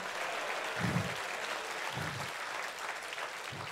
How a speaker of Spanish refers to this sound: Si esa es la, si esa es la alabanza de aplausos para tu Padre, dáselo mejor.